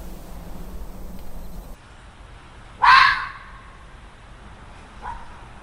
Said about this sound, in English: The chilling scream of a red fox vixen lingers in the air. Foxes live a mostly solitary life outside of the breeding season. The vixen is announcing her presence to any dog foxes that might be nearby and that she is ready to breed.